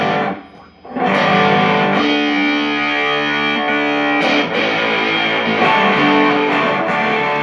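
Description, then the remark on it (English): Electric guitar played through a Fuzzrite fuzz pedal, with loud, buzzy, nasal-sounding sustained chords. A short dip near the start, then thick saturated notes that change every couple of seconds. “So the Fuzzrite just is all nasal.”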